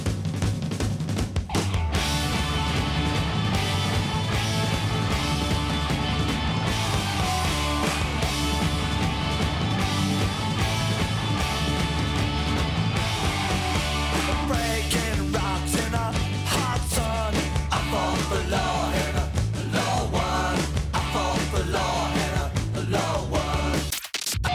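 A loud, energetic classic rock song plays on the radio station Mix Megapol during a Tuesday morning show, with driving drums, dense guitar chords and shouted vocals held at a steady, full volume.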